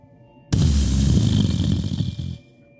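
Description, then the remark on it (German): A sudden, loud crack of thunder during a thunderstorm that swells into a deep rumbling roll for about two seconds before cutting off quickly. No one speaks over it. “Ich glaube, es gewittert.”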